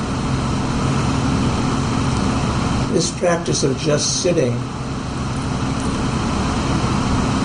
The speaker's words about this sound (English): so we can be open to hearing the stream of traffic. Sometimes there are sirens or uh, very uh, particular sounds, but at any rate.